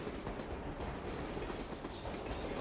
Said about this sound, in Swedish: Tåget rullade in på perrongen och där var fullt med andra troll.